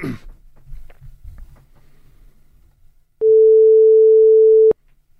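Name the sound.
telephone ringing tone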